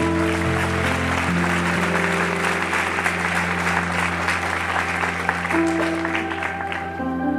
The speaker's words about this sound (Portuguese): Aplauda Ele. Vamos louvar o seu nome.